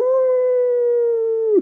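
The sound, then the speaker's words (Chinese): A human voice imitates a wolf howl, as the character Max in his wolf suit in a reading of Maurice Sendak's story Where the Wild Things Are: one long, loud, steady mid-pitched wail held for over a second, then briefly swooping down in pitch as it ends. “麦克斯学着狼叫。”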